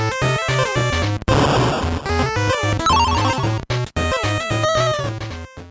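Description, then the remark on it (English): An upbeat, busy electronic video game tune plays alone, with a bouncy repeating bass line, layered bright melodies and quick arpeggios, and a couple of brief dropouts near the end. “All right, that might be the giveaway. That music there.”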